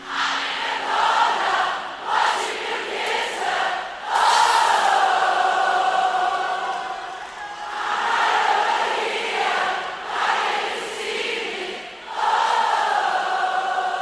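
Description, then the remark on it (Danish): A large crowd sings along with a female artist at a live concert, many voices merging into a loud, continuous chorus with a few brief dips between phrases. “Som du kan høre på liveoptagelsen her, så er hun nemlig virkelig god til at omfavne publikum”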